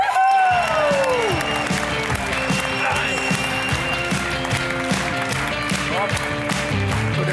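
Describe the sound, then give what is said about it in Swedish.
Sustained TV talk show audience applause welcoming a singer of a band, a dense steady wash of many hands clapping at full volume for several seconds, with a few voices and cheers mixed in. “En stor applåd för …!”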